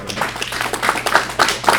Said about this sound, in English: Uh, have a nice round of applause